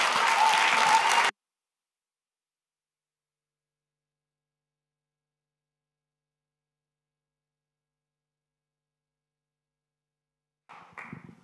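An audience applauds a woman honoured as a hero of the streets of Aalen. A loud burst of dense, crackling applause stops abruptly after about a second. A long silence follows, then quieter clapping briefly returns at the very end.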